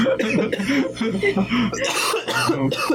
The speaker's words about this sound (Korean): 왜 갑자기 기침을 하시는지 목이 뭐 걸려서